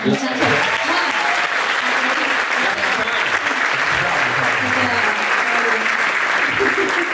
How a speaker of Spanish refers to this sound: un, un, aplauso.